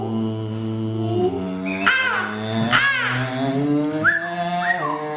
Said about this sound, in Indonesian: Oke udah ya, cuman sekedar ngasih suara-suara burung. lagi, ya, gitu, biar ngerasa hidup di alam nih.